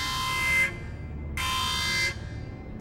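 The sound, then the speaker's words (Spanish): A loud, buzzy electronic beeping alert repeats in long pulses, each lasting about half a second to a second, with short silent gaps between them and no voices. “Y comienza a sonar un pitido”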